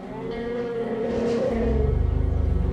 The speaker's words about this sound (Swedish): Där är det där ljudet igen. En elefant.